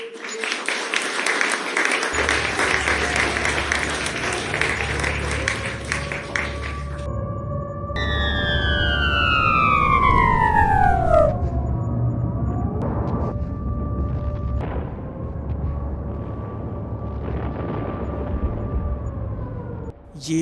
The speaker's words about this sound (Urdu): مغربی یوکرین کا شہر ٹہرنو ہے جہاں چوبیس فروری کی صبح کا آغاز سائرن بجنے کی آوازوں سے ہوتا ہے جنگ کے شعلے اس شہر تک پہنچنے کو ہیں اور اب شہری جان بچانے کے لیے بنکروں کی طرف بھاگ رہے ہیں